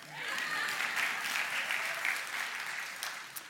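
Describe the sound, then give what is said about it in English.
A crowd claps steadily for a few seconds, a dense, even wash of applause that swells early and then slowly fades, with no talking over it. “Everybody clap, come on.”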